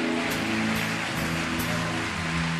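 A large crowd claps steadily, a dense, even patter of applause, with sustained low musical tones playing underneath throughout. The audience is applauding the name of Jesus.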